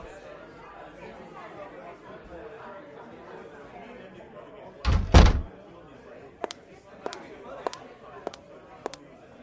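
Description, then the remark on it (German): A door opens with a heavy thud midway through to let in visitors who had knocked, followed by a run of sharp, evenly spaced clicks or steps, all over a low murmur of voices. “Ich weiß nicht, ob du Besuch erwartest, aber da steht noch jemand vor der Tür. Äh, lass uns die mal reinholen.”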